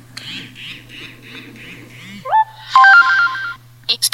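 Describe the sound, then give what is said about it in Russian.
A mobile phone's incoming text message alert as a security code arrives: a short series of bright electronic tones rising and stepping in pitch, loud, followed by a few quick clicks, over a faint steady hum. “Открылась следующая страница, на которой существует поле редактирования кода безопасности, который уже пришел на наш мобильный телефон.”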